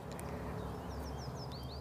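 A common chiffchaff sings a short run of repeated high, chirpy notes in a steady rhythm, faint over a constant low outdoor rumble, in a spot hemmed in by roads and railway tracks, with no one talking.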